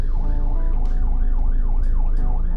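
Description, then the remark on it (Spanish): An ambulance siren wails in fast, repeating rising-and-falling sweeps, loud, over a dense, steady rumble of heavy traffic engines, heard from a car being driven as the ambulance tries to pass through the traffic. No one speaks. “Ok, nos llegó estoy manejando, así que lo más botana de esto es que hay una ambulancia que quiere pasar y, hay un chingo de tráfico.”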